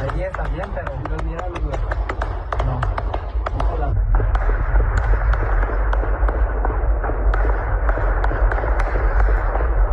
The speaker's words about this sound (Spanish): Sí, eso es lo que se escucha. ¿Eh, ¿Qué son disparos? Ajá, balazos. ¿Un rafaleo? Ajá. Ah, en la mañana, en la tarde, en la noche.